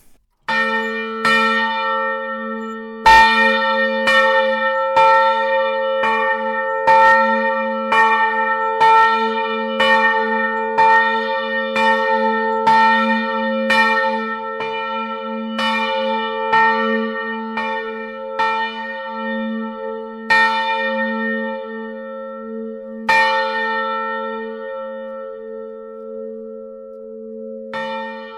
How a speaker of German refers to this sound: man merkt jetzt schon, so eine Glocke, die klingt sehr lange nach. Ja, das ist das Besondere der, des Materials. Für Glocken wird ein ganz spezielles Material verwendet, die sogenannte Glockenbronze.